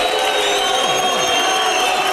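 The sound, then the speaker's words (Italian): A steady, dense crowd roar fills the whole stretch, broad and loud with no pauses, the rushing wash of many voices cheering together with applause mixed in. “Sì, sì, eh, tutto il eh. boato, il boato. Eccolo.”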